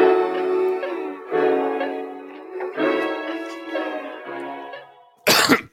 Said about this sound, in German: Sorry, ich muss husten.